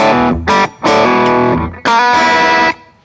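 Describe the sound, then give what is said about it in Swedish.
Electric guitar played through a Honeybee fuzz pedal: a few loud, buzzy, distorted chords and notes in short bursts with brief gaps, thick with harmonics and sustaining before cutting off. “Och då är det som så här att om man bara kör eh, en honeybee då, då som låter på följande sätt.”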